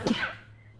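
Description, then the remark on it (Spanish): A single sharp sneeze bursts out, a quick explosive burst that trails off into quiet room tone. “Salud.”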